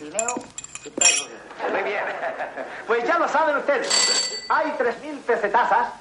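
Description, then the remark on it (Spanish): Cups and a spoon clink as a man makes himself coffee in a kitchen while listening to the radio, several bright metallic taps and rings, while voices talk continuously over them. “Arriba Paco está en la cocina preparándose un café mientras escucha la radio.”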